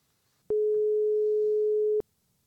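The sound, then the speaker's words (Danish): A telephone ringing tone sounds once while Absalons Radio places a call to a guest: a single steady, mid-pitched electronic beep lasting about a second and a half, clear and prominent over near-silence. “et kald og høre, hvad, hvordan han har oplevet Næstrup's indtog”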